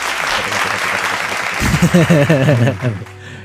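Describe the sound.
A steady burst of clapping fills the whole clip, close and fairly loud, with a voice speaking over it partway through before the applause thins out near the end.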